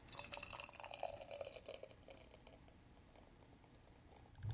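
Fresh beer, brewed on 3 June, poured into a glass: a gurgling, splashing stream for about two seconds, then a softer fizzing hiss as the foam settles, with a low steady rumble underneath and no talking.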